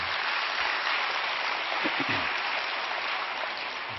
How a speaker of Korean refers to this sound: 할렐루야 우리 하나님께 영광의 박수 올려드립니다